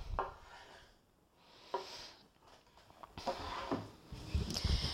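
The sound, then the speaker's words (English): A knife saws crosswise against the grain through a piece of beef on a wooden cutting board, cutting it into pieces, with uneven scraping strokes and occasional dull knocks against the board, with no talking. “Takes a good sharp knife, otherwise, you're going to be sawing at it for a while.”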